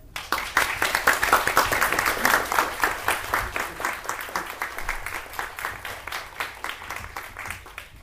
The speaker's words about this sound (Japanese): スタジオジブリの、えー、鈴木敏夫さんになります、えー、拍手でお迎えくださいませ